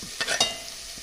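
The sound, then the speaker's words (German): Rustling and sizzling as food is stirred in a hot pan, with a few quick scraping strokes over a steady background hiss. “Ihr hört, es raschelt.”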